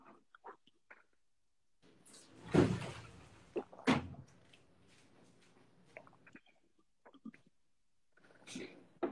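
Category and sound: household object, door being closed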